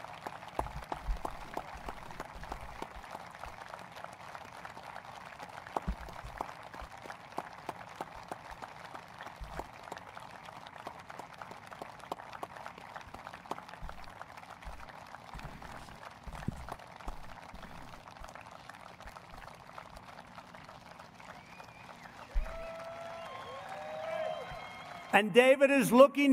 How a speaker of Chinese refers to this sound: 而 David Dorn 这个警员，他是代表了这一切的价值，请你们起立，接受鼓掌。